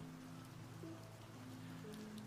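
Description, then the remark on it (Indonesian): Light rain patters softly and steadily against the window of a train bound for Jakarta, under an overcast sky, a faint continuous hiss with scattered tiny taps, over a low, steady background hum. “Rintik hujan turun perlahan yang bulirnya bergantian membasahi jendela.”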